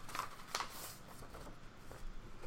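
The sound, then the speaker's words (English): Soft, crinkly paper rustling with a few sharper crackles, as sheets are shuffled and handled while searching for a piece of paper to write a number on, at a quiet level, with no voices. “I just need to find an appropriate piece of paper.”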